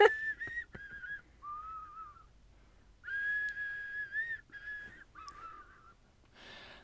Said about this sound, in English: The whistle was to the tune of Silent Night.